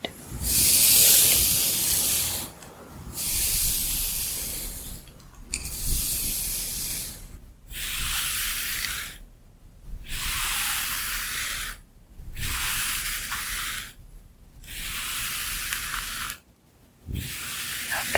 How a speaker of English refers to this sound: I'm going to brush either side of your hair. So I'll start here on the right side.